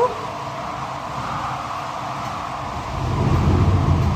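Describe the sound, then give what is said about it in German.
An original mechanical theatre wind machine in the Peiner Festsäle in Peine, Germany, played live and not through loudspeakers, gives off a steady, airy rushing whoosh that swells louder near the end, with a deeper rumble joining in. There is no talking. “Jetzt kommt der Wind dazu.”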